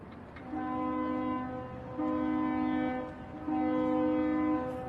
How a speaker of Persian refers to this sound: صدای سوت کشتی های بنده رو میشنوین؟